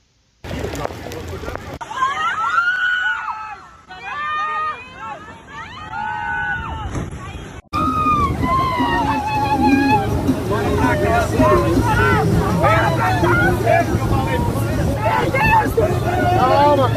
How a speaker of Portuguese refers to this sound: Antes da entrevista, você vai ouvir a edição que eu, Oscar, recuperei do momento do desabamento do paredão no Canyon. E também você vai ouvir o desespero dos turistas que estavam nos barcos.